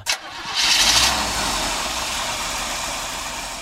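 A man starts the engine of a new 1961 Chevrolet Impala Super Sport, the 46 millionth Chevrolet built, at the Chevrolet plant in Flint, Michigan. The engine cranks briefly and catches, roaring up loudly before settling into a steady idle that continues to the end; no one speaks.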